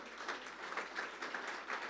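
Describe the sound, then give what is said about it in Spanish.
An audience applauds in praise to the Lord after a prayer, many hands clapping in a dense, steady patter that holds at an even level throughout, with no voices over it. “De un aplauso alabanza al Señor.”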